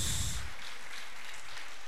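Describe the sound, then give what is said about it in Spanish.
Steady, dense applause from a church audience, given in praise to Jesus Christ, a loud burst at the start settling into continuous clapping that fills the whole moment, with no voices standing out. “Denle ese aplauso a Cristo Jesús.”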